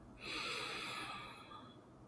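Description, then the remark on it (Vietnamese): One long, deep breath drawn in through the nose during a breathing exercise, a steady airy rush that lasts about a second before tapering off, clear with no talking. “bạn tự làm vậy thêm hai lần nữa nhé hít vào thật căng nào”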